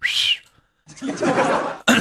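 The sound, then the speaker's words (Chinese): A failed attempt at whistling by someone who cannot whistle: a short, breathy whistle tone that bends upward, then a long airy hiss of blown breath and a final sharp puff, with no clear note. “我就不会吹口哨，吹口哨就是。”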